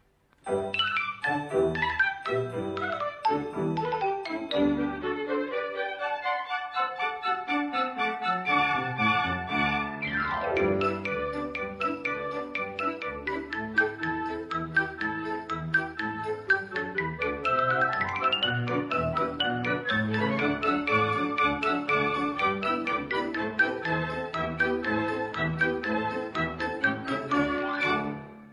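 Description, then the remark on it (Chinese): A bright, cheerful instrumental jingle, the opening theme of the Chinese children's radio program Xiao Laba (Little Trumpet), plays for about half a minute with quick tinkling melodic runs and chiming notes at steady volume, with no voices. “就是小喇叭开始广播了，然后我们现在要听一下这个片花吧。”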